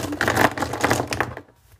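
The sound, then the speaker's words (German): A highlighter pen scratches across paper in a fairly loud stroke lasting over a second, with slightly uneven rasping texture before it lifts off and quiet follows, drawing a border line on a page of a small notebook. “Okay, ich zieh mal einen Rand.”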